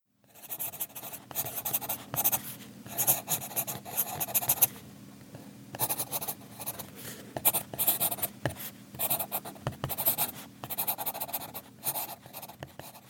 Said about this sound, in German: Klingt wie ein schnuffelnder Hund, ist aber ein Bleistift. Aber, aber was hat der Bleistift mit unserem Thema zu tun?